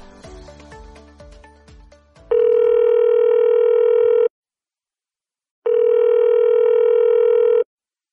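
A quick run of telephone dialing beeps, then two long, steady ringback tones separated by a short silence, loud, with no voices, as a call is placed for a telephone interview.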